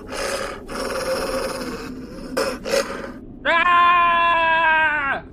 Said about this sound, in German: Was? Bitte? Was rufst du? Ich schrei einfach nur laut.